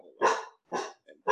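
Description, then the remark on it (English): A dog barks three times in quick succession, loud, each bark a sharp burst with a low growly sound between the first two. “sorry about my dog.”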